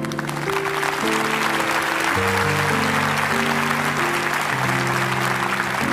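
A crowd applauds steadily for about six seconds for the people who are standing, a dense, even clatter of many hands over sustained keyboard chords that shift in pitch every few seconds.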